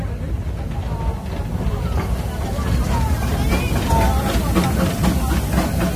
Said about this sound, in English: Oh, fantastic. Uh, it's great to see the engine going past us and uh, so many people waiting to go on this train.